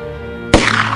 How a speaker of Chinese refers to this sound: 砰的一声，比尔的枪响结束了杜比的生命。